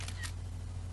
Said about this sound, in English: Text found. Okay, camera sound, turn page.